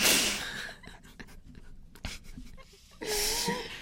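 Crinkly rustling of a crumpled paper sheet being handled, with a loud crackling burst at the start, scattered soft crackles in the middle, and another rustling burst at the end.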